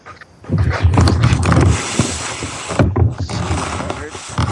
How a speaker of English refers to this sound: Sorry, my cat's burying his shit. I don't. I'm gonna have to get like a mic for this or something. I mean, at least I know the mics. The mic can pick up everything.